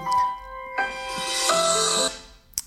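A phone rings with a bright electronic melody of stacked tones, a short chime followed by a sustained, louder ringing phrase that cuts off abruptly, then a brief click.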